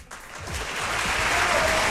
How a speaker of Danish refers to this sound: Du får lige en klapsalve. Det er, det, det er så, så skønt.